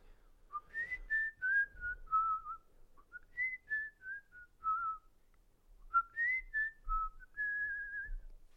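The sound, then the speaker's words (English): A person whistles a gentle, flowing melody with smooth sliding notes, in three phrases separated by brief pauses, mostly in a mid-to-high register, with no talking. “You know who's a uh, kind of a a uh, low key goaded whistler?”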